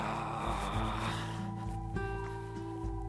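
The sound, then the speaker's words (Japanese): An ambulance siren sounds from outside, its two alternating tones stepping up and down over steady low traffic rumble, moderately loud. “なんかすごい救急車の音聞こえますかね入っちゃってるだろうな”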